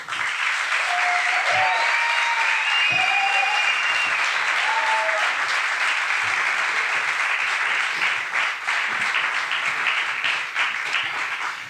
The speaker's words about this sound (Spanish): Y por eso hoy recibimos con este ah, maravilloso aplauso al gran fotoperiodista Manu Bravo.